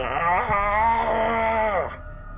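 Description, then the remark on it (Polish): A person vocally imitates a smoke monster's drawn-out, strained groan, one loud, wavering creaky moan lasting about two seconds before cutting off. “Y, dymny stwór zaczyna stękać i trzeszczeć, jakby ktoś ściskał kadłub statku drewnianego i zaczyna coraz głośniej krzyczeć.”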